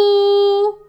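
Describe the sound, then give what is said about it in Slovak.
A single loud, bright honk from a little locomotive horn, starting abruptly, holding steady for most of a second, then quickly fading out. “Odľaku zatrúbila.”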